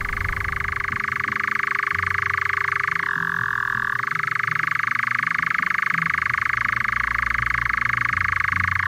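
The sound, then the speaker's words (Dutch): A European nightjar churrs continuously in the distance at 10 pm, a steady mechanical trill that briefly drops in pitch partway through, with a low background rumble and no voices. “De nachtzwaluw”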